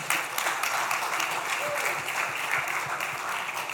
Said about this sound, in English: Démosle otro aplauso